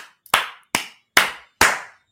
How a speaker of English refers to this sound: Clapping.